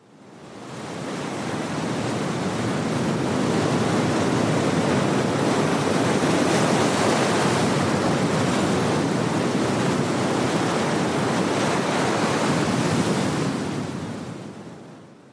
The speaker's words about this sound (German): Also das ist der Klang von Wellen, vom Meer. Etwas, was äh, im Internet angeboten wird für Menschen, die Schlafschwierigkeiten haben. Die sollten sich das anhören.